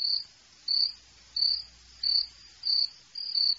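A cricket chirps in a steady rhythm, six high, buzzy trills evenly spaced about two-thirds of a second apart, clear and alone over a quiet background.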